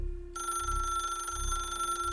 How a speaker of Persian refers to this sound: صدای زنگ تلفن روی میزم منو از افکارم بیرون کشید گلومو صاف کردم و بعد از دو زنگ گوشی و برداشتم